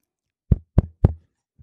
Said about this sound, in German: bevor es losgeht, kannst du mal ganz kurz an dein Mikro tippen.